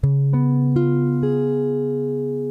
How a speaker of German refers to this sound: Und des 7 einfach mit der Quinte oben.